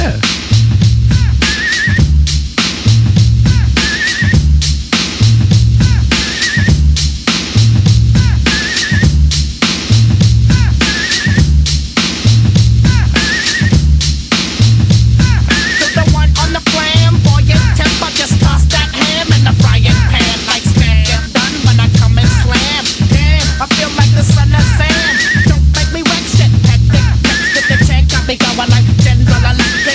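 A hip hop song from 1993 plays loudly, built on a steady looping beat with heavy, punchy bass hits and a repeating high riff, with a voice coming in over the groove partway through.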